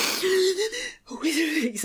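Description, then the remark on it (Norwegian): A woman demonstrates slow, controlled hypnobirthing breathing used to get through labour contractions: two long, breathy, voiced exhalations separated by a brief pause, with no words spoken. “Sånn pusting for å komme seg gjennom.”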